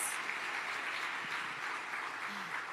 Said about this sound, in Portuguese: Aplauda o Senhor mais uma vez.